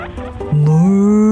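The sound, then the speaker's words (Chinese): A long, drawn-out moo from a pasture, likely a human voice imitating a cow named May Rose, grazing: one steady, loud, low tone that slowly rises in pitch and holds to the end, after a brief murmur. “他们时不时听到从牧场传来长长的叫声，”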